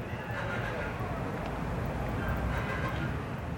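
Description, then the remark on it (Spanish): A steady, dense wash of city ambience by the river in Guayaquil, Ecuador, at six-thirty on a weekday evening, with a constant low rumble and a murmur of voices blending together, no single sound standing out. “Y este es el sonido de las seis y media de la tarde, un día de semana, frente al río.”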